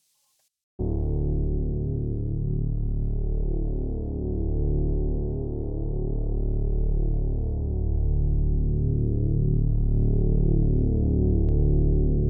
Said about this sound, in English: the second part of this song. It's, it's eh, quite like the first part, so it kind of seems that this uh, uh song is evolving, it's growing, it's moving and for this I recorded a different synth bass.